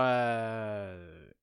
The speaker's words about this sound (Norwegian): Var det en nys? Nei, det var på en måte en nys, men så var det en gjesp, og så var det en host. det hadde flere faser.